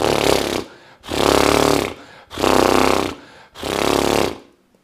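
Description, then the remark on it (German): As a warm-up exercise, a person blows four loud, buzzing lip trills in a steady rhythm, each about a second long with short pauses between, imitating a horse's snort. No one speaks. “Und das machst du, indem du Pferd spielst. Ist beim ersten Mal ein etwas ungewöhnliches Gefühl, wenn du so machst.”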